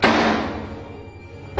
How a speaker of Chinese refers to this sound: 子超推开第一间门，子超推开第二间门，子超推开第三间门